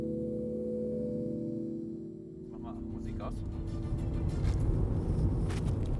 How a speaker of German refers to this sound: Wir sind im Auto unterwegs Richtung Brandenburger Tor.